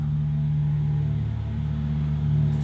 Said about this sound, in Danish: Som, mens der nu flyver et fly her hen over kolonihaven på Amager, så vil jeg prøve at gøre den klar til dig.